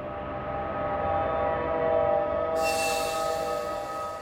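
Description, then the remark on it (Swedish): A subway train makes an emergency stop at a platform, its wheels letting out a loud, sustained metallic screech against the rails that holds steady for several seconds, piercing, with no voices. “De sista metrarna före tåget stannar skriker hjulen mot rälsen.”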